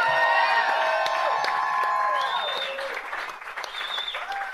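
An audience applauds host Jim Krenn on No Restrictions on the Sideshow Network, steady dense clapping mixed with sustained whoops and cheering voices that rise and fall in pitch, loud at first and easing slightly toward the end.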